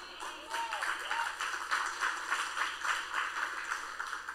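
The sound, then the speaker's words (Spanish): An audience applauds steadily for several seconds, a dense wash of overlapping hand claps with a few brief higher-pitched cheers near the start. “Así que espero que ahora todos con ese aplauso digan, yo quiero ser esa persona que tiene ese tipo de fe.”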